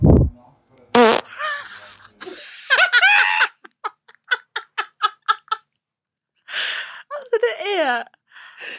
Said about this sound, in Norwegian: Jeg er så misunnelig på folk som kan fise sånn.